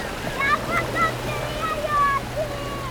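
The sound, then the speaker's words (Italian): Ocean waves wash steadily onto a beach in California on an unusually cool May day, with the sun on the horizon and a girl running along the shoreline chasing the waves; a continuous rushing hiss with faint, brief high chirps scattered over the surf. “Il sole è all'orizzonte e Jennifer corre sul bagnasciuga, rincorrendo le onde.”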